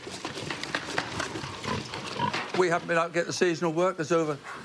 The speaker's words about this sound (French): élève des cochons dans cette ferme du Norfolk.